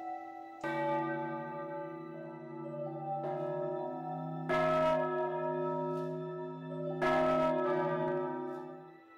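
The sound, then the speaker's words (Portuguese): A chapel bell tolls four times at uneven intervals, each strike leaving a rich, humming ring that overlaps the next. Fairly loud and resonant, with no voices. “Logo se encontra em frente à capela e ouve o tocar do sino.”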